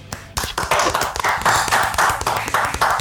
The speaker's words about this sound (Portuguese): Eu quero pedir a todos aqui uma salva de palmas ao Flogão.